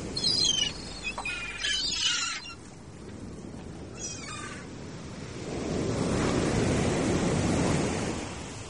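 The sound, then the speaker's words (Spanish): Heavy surf of giant Atlantic Ocean waves roars and crashes on the north beach with wind, swelling into a louder, sustained rush in the second half, while a few high-pitched bird-like cries sound over the noise early on. “El sonido de las olas gigantes rompiendo en la playa del norte.”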